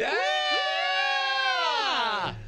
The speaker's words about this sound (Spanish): Oye, este, eh, favor que me hacen, favor que me hacen. Eh, un grito de las guapas.